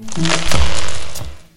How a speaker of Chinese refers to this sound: 哦哦，树枝断了，一长串的猴子，一只一只，全都掉进了水里。